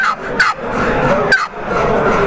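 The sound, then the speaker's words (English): A turkey hen yelp blown on a one-sided mouth call: a few short, raspy notes, sharp bursts with brief gaps and abrupt cutoffs, with no talking. “And it, and it, the end of that yelp to me is not as abrupt, just kind of, you know, just shut off like it is with this one-sided right. call.”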